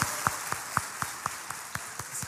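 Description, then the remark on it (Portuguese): A church audience applauds to honor the people who serve in the church. Sharp claps land in a steady, quick rhythm of about four per second over a continuous hiss of scattered clapping. No one speaks. “Você pode honrar o pessoal que serve nessa igreja com uma salva de palmas, irmãos.”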